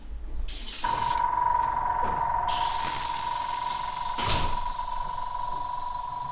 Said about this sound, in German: Das Knattern, das man hier gerade gehört hat, kommt von der Sprühpistole, mit der